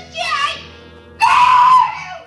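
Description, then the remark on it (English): Two shrill, high-pitched, loud screams: a shorter cry first, then after a brief pause a longer, stronger wail that holds and slowly trails off. “The scream pulled Groza's eyes off me just long enough.”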